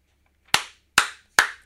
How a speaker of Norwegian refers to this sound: Ja, det er veldig kjekt at du klapper. Ja, nydelig.